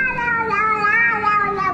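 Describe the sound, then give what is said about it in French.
A man's pet cat lets out a long, drawn-out, oddly warbling meow, sustained and wavering in pitch for nearly two seconds, fairly loud, with no other sounds. “Le mec, il a un chat qui miaule d'une façon très très bizarre quand même.”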